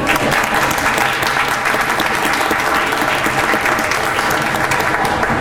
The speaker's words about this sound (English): Uh, for those of us who are at Kennesaw State uh, just about every day, uh, I think we should all applaud our guests from Peru and thank you for coming here once again.